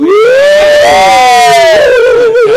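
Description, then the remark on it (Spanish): A person lets out one long, loud ghostly howl, the voice sliding up, holding a wavering high pitch, then sinking back down over a few seconds, with no talking. “me encanta aullar, me encanta aullar.”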